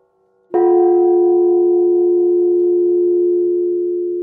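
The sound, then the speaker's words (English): A single strike with a mallet sets off a clear, loud ringing tone that hangs steadily and fades only slightly over several seconds, with no voices present. “I mean, one of them, there's a mallet next to it, and you get the wonderful chance to hit it.”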